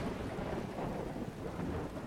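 A thunderstorm with steady, heavy rain hissing throughout and a deep thunder rumble rolling underneath, dense and constant, with no voices.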